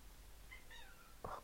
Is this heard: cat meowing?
yes